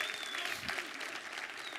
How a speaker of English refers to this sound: Uh, hey, they about had to bring out chairs this Sunday at the 8.30. Isn't that awesome? Isn't that awesome? Y'all ain't going to clap for that. Come on. Amen.